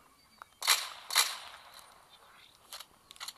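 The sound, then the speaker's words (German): Two sharp, bright video game gunshots ring out about half a second apart, each trailing off quickly, followed by a few fainter clicks and shots in the background. “Also noch ein paar Schüsse.”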